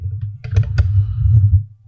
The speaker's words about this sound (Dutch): Doe, doe eens op de Windows-toets op je toetsenbord.